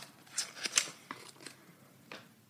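Someone rummages through a box of cards, making a string of short, crisp papery rustles and clicks, a few sharper ones early on, then sparser and softer, with no talking.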